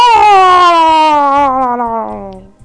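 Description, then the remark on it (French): A person imitates the cry of a baby murloc: one loud, sustained, nasal wail that slides steadily downward in pitch for over two seconds, with a slight warble, then trails off. “Le cri du murloc”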